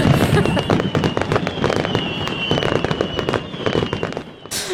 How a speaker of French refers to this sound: Momo, feu d'artifice.